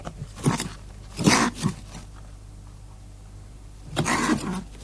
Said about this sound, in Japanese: 唯一泣くのが餌をあげる時にその餌をあげるための器を取るんですけどそれを取ろうとする時に自分の餌を奪われると思って威嚇でブーって泣くんですよね